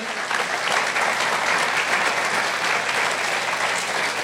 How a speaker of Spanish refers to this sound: Un aplauso para todos los voluntarios que hoy están sirviendo aquí en CDO, en la computadora, en el audio, con los niños, recibiendo.